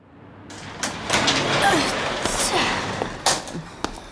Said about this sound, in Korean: 8시쯤 도착하니 엄마는 약국 문을 닫고 셔터를 내리는 중이었다.